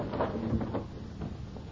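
A door opens with a short wooden creak and soft knock, followed by quiet shuffling movement as a servant enters, all fairly low in level with no voices.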